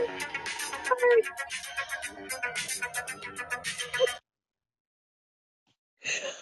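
A phone ringtone for a call from Uber plays the Knight Rider TV theme, a loud, bright electronic melody with a steady pulsing beat, for about four seconds, then cuts off into silence before a brief rustle.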